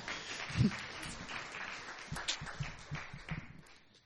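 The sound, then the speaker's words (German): An audience applauds the technical crew, clapping steadily for about four seconds, a dense crackle of many hands at moderate volume that thins out and fades toward the end. “Ich würde einen Applaus hier für die Technik.”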